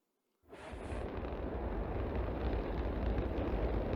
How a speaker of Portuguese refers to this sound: Raptor 2 é um motor de um foguete mais moderno que foi inventado até hoje. Ele tem 230 toneladas de empuxo, ou seja, o mais conhecido como propulsão ao nível do mar.